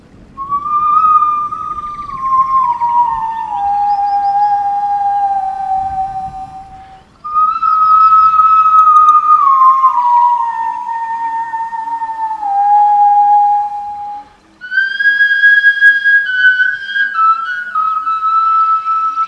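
A breathy whistle made from bone with holes bored in it plays three long sustained phrases, each sliding gently downward in pitch with clear overtones, separated by short pauses, fairly loud with no talking.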